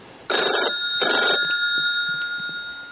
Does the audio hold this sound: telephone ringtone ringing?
yes